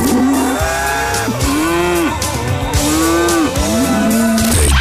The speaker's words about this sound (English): the winner, as judged on a farm, uh, comes from Holland, the official cow country. Short and sweet, here it is. If cows could sing.